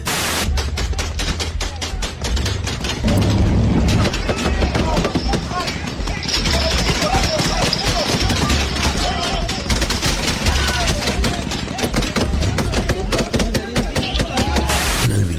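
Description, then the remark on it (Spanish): Heavy gunfire from an armed clash between the Sinaloa Cartel and the Jalisco New Generation Cartel in Zacatecas, Mexico, rattles almost nonstop, with rapid bursts of sharp cracking shots overlapping one another, loud and dense throughout, while indistinct voices occasionally surface beneath the shooting. “Aunque estas últimas semanas han sido las más violentas con enfrentamientos como este.”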